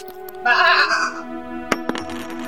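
A single loud, wavering sheep bleat lasting under a second, followed by a couple of sharp, brief clinks against a quiet background.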